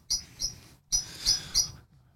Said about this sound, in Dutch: Nee, nou, eh, die Merel die heeft mij vanochtend uh, wakker gefloten. Die begint om een uur of... Uh, ja, dus echt... Vogeltje, wat zing je voor?